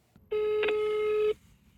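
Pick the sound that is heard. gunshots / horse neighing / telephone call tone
telephone call tone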